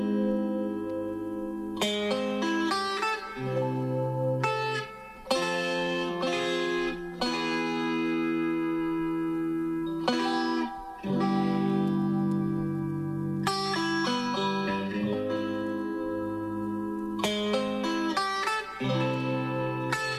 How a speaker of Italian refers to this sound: Ehm, quindi ecco, a me mm, piace tanto questo, il brano che, che vorrei farvi ascoltare,